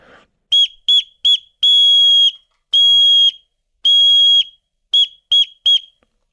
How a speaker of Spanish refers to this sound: Eso es S o S en clave morse en el silbato. Igual, para montaña o cualquier lado.